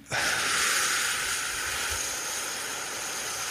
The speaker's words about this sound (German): atmen wir vier Sekunden aus und halten vier Sekunden. Dann atmen wir wieder vier Sekunden ein halten vier Sekunden und atmen vier Sekunden aus und so weiter und so weiter,